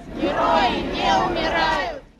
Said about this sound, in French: La foule crie en partant vers le cimetière.